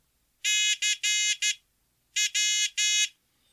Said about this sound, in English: But you add some Morse code intelligence to it, like I'll send I will send CW the, the letters C and W using CW.